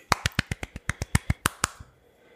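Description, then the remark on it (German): A quick burst of hand clapping, about a dozen sharp, evenly spaced claps from what sounds like a single person, fairly loud, stopping after under two seconds. “An der Stelle ein kurzer Applaus für euch.”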